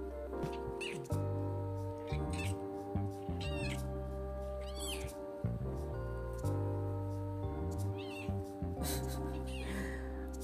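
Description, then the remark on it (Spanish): A cat named Isis meows repeatedly and insistently for several seconds, loud, with drawn-out, wavering cries over a steady low background hum. “Ah, perdón, yo sé que están escuchando una, una gata maullar como por quién sabe cuántos segundos.”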